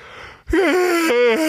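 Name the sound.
yawn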